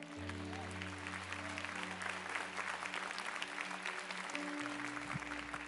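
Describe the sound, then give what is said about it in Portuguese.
An audience bursts into sustained applause for the Lord after a Bible passage is read, a dense, steady clatter of many hands clapping, with a low organ-like tone humming underneath throughout. “Você pode aplaudir o Senhor por essa palavra?”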